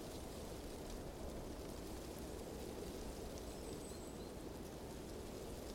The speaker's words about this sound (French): Un silence plein de l'absence de René et Jackie, mais également un silence plein du bruissement de la nature en hiver.